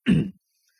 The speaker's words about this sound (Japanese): すごく咳込んでますけどもね